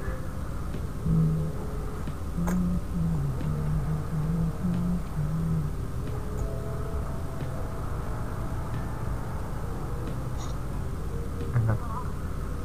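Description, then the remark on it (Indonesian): A phone ringback tone plays while a call waits to connect: a run of short, low beeping tones repeating for a few seconds, fairly faint over a steady background hum. “ini podcast isinya nungguin gue nelpon dong ya sama suara-suara telepon”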